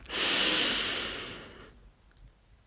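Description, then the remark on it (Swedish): A long, deep inhale through the nose, a steady airy hiss that swells quickly and tapers off after about a second and a half, clear with no talking. “Så andas in, fyller upp.”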